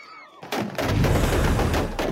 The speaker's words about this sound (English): Outside of Kabul International Airport, Chaos reigns. Bursts of heavy gunfire compound the fear and panic as Taliban use riot control agents on hundreds of Afghans waiting outside a closed U.S. military gate.